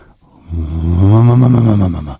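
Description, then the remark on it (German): A voice imitates the angry revving of an engine at a traffic light, a low growling roar that swells and rises in pitch, holds for over a second, then drops away. “So ein böses Aufheulen.”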